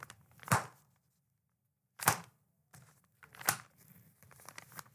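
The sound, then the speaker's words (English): Crinkling and rustling of a paper envelope as someone reaches into a bag for it, with three sharp tearing bursts spaced about a second and a half apart and softer handling noise in between. “There's some rustling and it's that envelope.”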